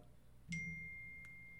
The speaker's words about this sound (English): I thought I put my phone on silent and I was wrong.